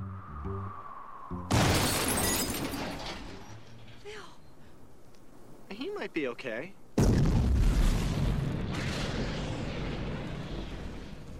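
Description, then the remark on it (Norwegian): A fatal car crash after a man tries to teach a groundhog to drive: a sudden loud smash with shattering debris, then a second heavy blast-like impact that roars on. A voice speaks briefly between the two bursts. “prøver han å lære groundhoggen Phil til å kjøre bil, hvilket selvsagt ender med et fatalt krasj”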